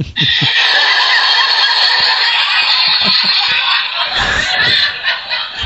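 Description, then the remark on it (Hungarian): A canned laugh track plays: a loud, unbroken swell of many people laughing and cackling together for about six seconds, with no talking over it. “olyan, olyan hosszan nevetnek, nem lehet kikapcsolni, na most jó.”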